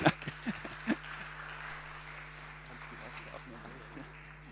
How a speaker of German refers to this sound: Also es wäre ein Applaus, wäre möglich jetzt in diesem Moment, ja.